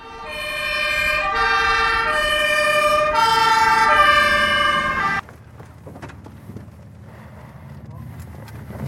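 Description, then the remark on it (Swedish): The siren of arriving rescue services after a car crash wails loudly in the distance in alternating tones for about five seconds, then cuts off abruptly, leaving only faint background noise. “Allt tystnar för en stund och äntligen hör du i fjärran hur räddningen anländer.”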